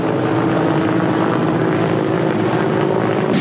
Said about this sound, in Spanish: En el aire, imponentes pájaros de acero descargan miles de litros de agua para evitar que las llamas se propaguen.